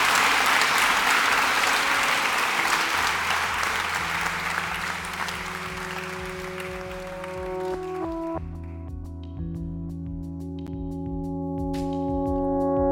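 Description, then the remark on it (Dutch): An audience at a Studium Generale lecture at Utrecht University claps in a dense, steady burst of applause that gradually thins and fades, while sustained musical tones swell underneath and take over by the end. “Heel hartelijk applaus graag.”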